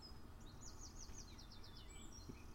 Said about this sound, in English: you hear the birds outside.